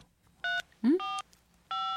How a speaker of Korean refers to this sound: 숫자 9번을 꾹 누르고 상대 번호를 누르면 되는 시스템이었죠. 근데 문제는 사장님의 내선 번호였습니다. 사장님의 내선 번호는 010 부사장님은 020 번이었는데요. 사건의 시작은 부사장님이 외부 휴대폰 번호를 누르면서부터였죠.